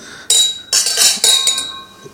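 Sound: glasses clinking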